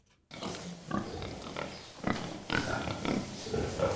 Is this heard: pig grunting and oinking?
yes